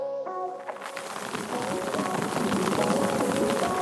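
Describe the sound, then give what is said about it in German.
Many mosquitoes whine together in a dense, continuous buzz, wavering high drones layered over a rustling, crackling texture that stays fairly loud for the whole few seconds, heard up close in the space between the inner and outer tent. “Zwischen Innenzelt und Außenzelt hat so unglaublich viele Mücken angesammelt. Sag mal, wie sich das anhört von nah.”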